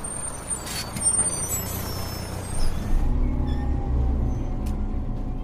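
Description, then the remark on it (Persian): A city bus rumbles to a stop in the middle of the road with several short bursts of air-brake hiss, then settles into a low, steady, moderately loud engine idle. “همین کارم کردم سوار اون اتوبوسا شدم و وسط های جاده وقتی نزدیک شدی به اونم با با هزار از تو فر نگه داشت و پریدم پایین”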